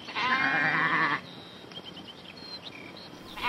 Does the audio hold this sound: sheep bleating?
yes